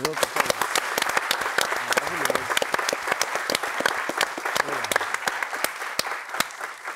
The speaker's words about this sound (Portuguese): Uma salva de palmas para